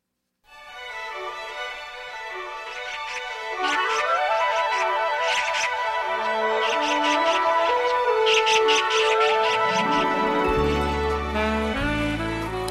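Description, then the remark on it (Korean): The main theme of the Korean TV drama Jeonwon Ilgi (전원일기), a gentle, nostalgic orchestral tune playing on its own, with a melodic line over sustained harmony that swells slightly louder after a few seconds and adds a deeper bass toward the end. “네, 정겨운 음악 소리입니다.”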